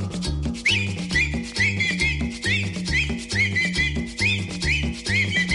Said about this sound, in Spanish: Y ahora chiflando todo, chiflando todo.